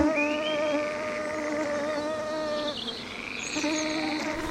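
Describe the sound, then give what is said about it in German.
The thin, high whine of Rhine mosquitoes (Schnaken) at fishermen's huts by the Rhine drones continuously, wavering slightly in pitch, with a brief shift partway through before the buzzing carries on steadily to the end. “hätten uns hier in den traulichen Fischerhütten vielleicht mehr als billig angesiedelt, hätten uns nicht die entsetzlichen Rheinschnaken nach einigen Stunden wieder weggetrieben.”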